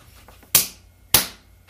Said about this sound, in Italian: Era il suono del pugno contro la mia mano.